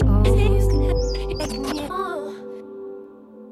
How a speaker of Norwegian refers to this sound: Litt uh, Litt uh, dansete elektronika sånn uh, når, uh, når morgenen nærmer seg slutten, som den jo gjør rundt klokka ti